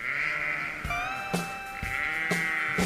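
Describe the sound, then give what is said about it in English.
Sheep bleating in a short intro jingle for a segment, several wavering, drawn-out bleats layered over a steady tonal backing with sharp bursts between them, loud, with no talking. “You guys know what that music means. It's now time for the Sheep's pick of the week.”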